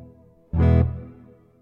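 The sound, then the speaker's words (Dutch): A single electric guitar chord, played through a light overdrive that gives a little crunch, a small looper and a reverb with a bit of echo, rings out loudly, then fades into a soft reverb tail. No voices accompany it. “Ja een overdrive, een soort lichte distortion. Geeft zo'n klein beetje crunch, maar niet te veel.”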